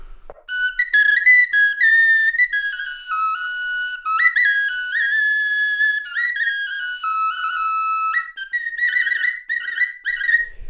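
A bone flute plays a continuous, breathy melody of sustained whistle-like notes, stepping between pitches with occasional slides and quick trills near the end, fairly loud with no talking.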